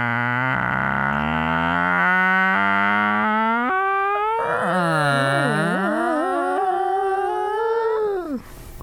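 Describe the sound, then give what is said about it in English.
A person's voice imitates a creaky door in one long, loud groan for the Creaky Door Impression segment of the morning show on WVUA FM 90.7, Tuscaloosa, its pitch climbing in steps before wobbling and warbling, then cutting off abruptly. “Welcome back to the morning show and to your favorite segment, Creaky Door Impression.”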